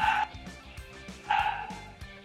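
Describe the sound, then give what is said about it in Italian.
A dog named Birillo barks twice during the Radio Scream broadcast, in sharp, loud bursts with short yelping tones, separated by a brief pause over a low background murmur. “Intanto si sente Birillo che vuole intervenire in Radio Scream.”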